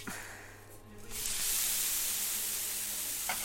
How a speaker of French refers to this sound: Ça chante. Et là vous êtes sur le bilig avec euh, la galette qui est en train d'être cuite. Hein. Vous entendez Ça crépite, c'est bon.